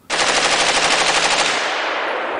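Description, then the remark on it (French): A loud burst of machine-gun fire from German soldiers shooting a prisoner on a Gestapo officer's order erupts abruptly and rattles in a rapid, continuous stream of shots for about two seconds, slightly fading toward the end, with no voices. “L'homme tombe sous les balles qui déchiquettent son torse.”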